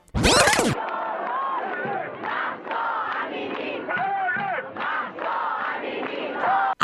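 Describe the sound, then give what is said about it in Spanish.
Thousands of people chant and shout together in a street march in Berlin, protesting in solidarity with the people of Iran, loud and sustained, with voices rising in rhythmic waves after a brief sharp burst at the start. “Así se escuchaban las miles de personas que salieron a las calles de Berlín para protestar en solidaridad con la gente de Irán”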